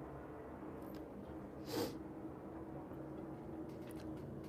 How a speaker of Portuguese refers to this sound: Ó, passar avião aqui.